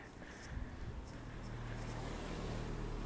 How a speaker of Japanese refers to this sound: ああ多分車が来ますね